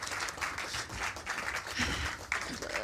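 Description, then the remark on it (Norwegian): An audience in a tent applauds steadily during a stage change at a startup event, a dense wash of many hands clapping at once, sustained and fairly loud throughout with no voices standing out. “Så kan vi få en applaus av den gjengen her mens vi får et lite sånn taktskifte her oppe på scenen.”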